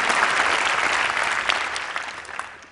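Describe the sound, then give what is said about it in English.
An audience breaks into steady applause at the idea of eradicating malaria, a dense wash of many hands clapping at once, holding strong before gradually thinning out toward the end. “Yes, clap for that.”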